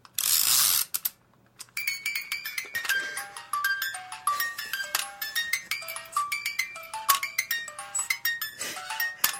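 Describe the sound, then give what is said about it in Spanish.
A broken wind-up crib toy mechanism whirs briefly, then clicks and ratchets steadily while plinking out a tinkly, slightly off-key melody, fairly clear with no voices. “Vino fallado, me muero.”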